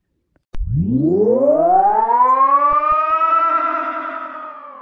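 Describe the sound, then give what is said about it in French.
A sci-fi time machine in an attic powers up, its harmonic hum sweeping steadily upward in pitch like a siren winding up, then holding a sustained, fairly loud tone before easing slightly. “Avec un bourdonnement doux, le grenier s'illumina transportant Leina dans un monde totalement différent”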